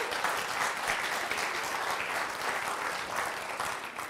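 An audience claps steadily, a dense, even wash of many hands sustained at full strength for several seconds without any speech over it. The applause is for the speaker's wife.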